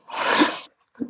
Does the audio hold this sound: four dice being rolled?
no